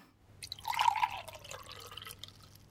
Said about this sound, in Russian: Мне надо попить водички, а то да, попьем водички, пожалуй.